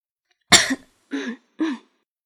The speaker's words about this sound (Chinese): …在旁边教室门口轻轻的咳嗽。